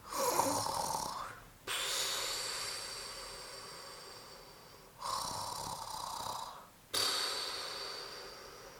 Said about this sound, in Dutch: Even later hoorde Letitia hen zachtjes snurken.